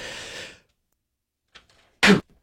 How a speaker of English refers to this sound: Sorry, I had to sneeze right in the middle of answering that question.